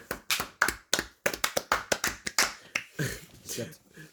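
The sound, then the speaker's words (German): A person claps for themselves in a quick, uneven run of about a dozen sharp, crisp claps, then the clapping gives way to voices talking. “Das hat für sich selber geklatscht.”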